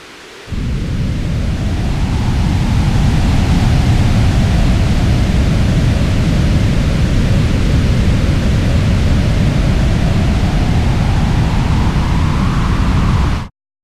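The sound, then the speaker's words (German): A synthesized thunderstorm built entirely from white noise, layering rain, wind, lightning and thunder: a dense, steady wash of rain and wind noise with a deep, rumbling low end, loud for about thirteen seconds before cutting off abruptly. No voices. “Und zum Schluss auch noch Blitz und Donner.”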